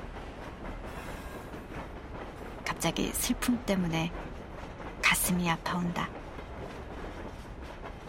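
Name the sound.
train running on rails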